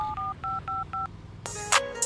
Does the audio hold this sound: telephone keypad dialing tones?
yes